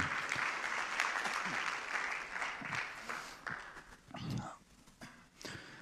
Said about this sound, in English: Can you clap your hands as you're seated?